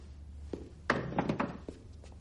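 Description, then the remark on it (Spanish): A wooden chair, brought over by a man carrying a plate of mashed potato, is set down with a solid clunk, followed by a few lighter knocks and scrapes as it settles on the floor, with no one talking. “John se acerca con la silla y un plato de puré.”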